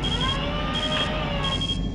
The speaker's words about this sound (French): tu l'entends l'alarme de proximité ou pas